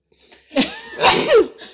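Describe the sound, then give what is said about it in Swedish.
A single forceful sneeze: a short gasping intake followed by a loud, breathy burst that trails off, heard on its own without talking. “eh, nu måste jag nysa alltså.”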